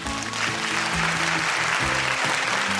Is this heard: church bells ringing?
no